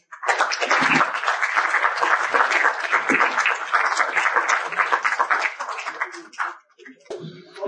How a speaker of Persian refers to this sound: خودتون رو لطفا تشویق کنید مرسی